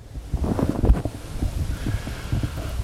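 Gusty wind rumbles steadily across the open grounds of the Centralfriedhof Friedrichsfelde cemetery in light drizzle, buffeting the microphone with low, uneven bursts that swell and ease over a few seconds. No one speaks.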